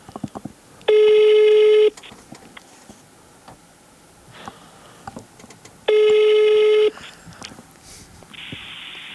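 A phone call to someone at home ringing out: two steady, buzzy ringback tones about a second each, separated by a few seconds of quiet line with faint clicks and ticks, clear.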